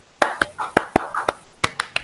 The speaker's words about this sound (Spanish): Aplausos para el invitado, claro,